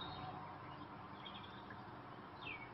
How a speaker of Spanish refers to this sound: Con melodiosos trinos los mirlos saludan mientras afanados buscan lombrices en la húmeda tierra.